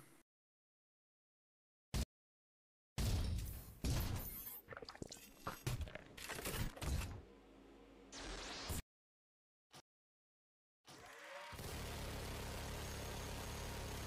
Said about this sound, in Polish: To jest tyle, co słyszycie. Po pierwszej serii następuje następna. Długa, przecinająca ściany.